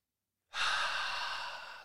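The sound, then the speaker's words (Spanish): After a brief silence, a single deep, airy breath rushes in, taken to calm down, steady and fairly loud, lasting over a second and easing off slightly toward the end. “Cálmate, respira conmigo, cuentas a tres.”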